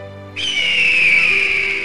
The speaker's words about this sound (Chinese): 隔天清晨，神鹰睡饱醒来。昂起了脖子，啼叫了一声